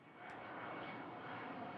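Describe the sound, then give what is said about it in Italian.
A private jet's engines roar steadily and loudly overhead, a dense continuous rush of noise that swells slightly at the start and holds without a break, with no voices. “un jet privato messo a disposizione dall'amico e complice Bruce Reynolds lo riporta in Inghilterra”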